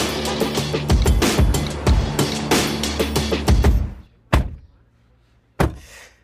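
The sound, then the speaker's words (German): Shuffling and rustling movement as Leslie Clio climbs into a car, followed by a solid thunk of the car door shutting and a second, softer thump a moment later. No one speaks. “So, dann schnalle ich mich jetzt an, ihr macht's auch und dann steigt hier gleich Leslie Clio ein.”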